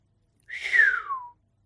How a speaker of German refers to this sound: Mary pfiff anerkennend.